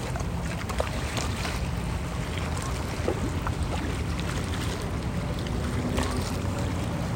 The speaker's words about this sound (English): I'm like enjoying the water. I love it. The sound of the water hitting the rocks, like, listen, it's literally the best.